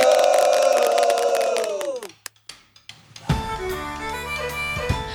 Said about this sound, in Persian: یه تعداد خیلی محدودی هم بقیه شرکت کننده ها رو تشویق میکردن که کاملا تابلو بود فامیلای خودشون